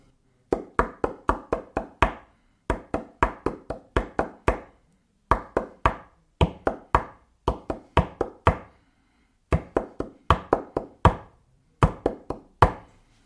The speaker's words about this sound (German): Und ja, man könnte das auch klopfen, zum Beispiel so.